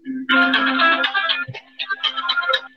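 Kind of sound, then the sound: signal or alarm, phone ringing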